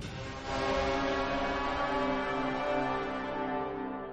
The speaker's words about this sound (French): Euh, eh ben allez, signal sonore.